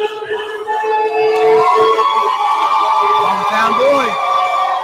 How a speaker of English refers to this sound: hear that crowd. Wow.